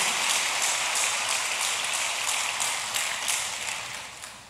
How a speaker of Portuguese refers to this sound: Se quer aplaudir, aplaude com força. Faz, se é para Jesus, faz bonito.